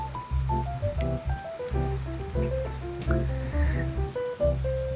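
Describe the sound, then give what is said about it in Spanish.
Steady hissing rain runs underneath a mellow jazz tune, with a walking bass line and a soft melody of plucked or keyboard notes stepping up and down at moderate volume. “me gusta el fondito que puse porque está como se escucha como la lluvia y sabe, como sabes que me gusta el jazz, pues ahí lo lleváis, ¿no?”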